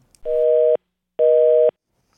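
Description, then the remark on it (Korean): Two loud, steady electronic tone bursts of about half a second each, separated by an equal pause, the repeating beep of a telephone line after the call has been cut off. “전화 끊기는 소리예요.”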